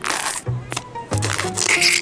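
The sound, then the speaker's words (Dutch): Busy fiddling noises: a pen whose ink had run out being refilled with new ink, with scraping, rustling and small clicks in quick irregular bursts over about two seconds, no voices. “Ineke deed snel wat nieuwe inkt in de pen.”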